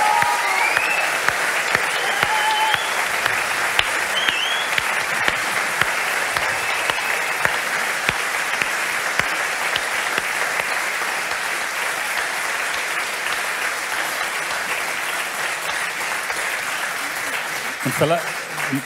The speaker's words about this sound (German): Ich möchte auch einfach, dass wir das Marketing-Team einfach einen Applaus geben. Es genial, ¿verdad?